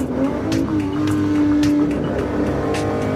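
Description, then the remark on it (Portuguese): The 300-horsepower V12 engine of a 1963 GTO sports car runs steadily at a loud level, its deep rumble holding a sustained tone with brief rising revs and faint higher whines layered over the drone. “Além dos impressionantes números que o motor V12 de 3 cilindros com 300 cavalos rende, essa, especificamente de 63, ganhou mais de 300 corridas que disputou”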